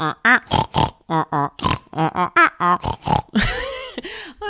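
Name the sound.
voice imitating pig grunts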